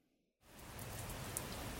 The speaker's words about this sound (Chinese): 外面又下雨啦！哎，怎么前一段时间才一直下雨？好不容易太阳公公回来啦，怎么现在又在下雨了呢？诶，这到底是在下什么雨啊？